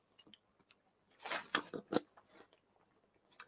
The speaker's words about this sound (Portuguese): deixa eu beber só um gole d'água aqui.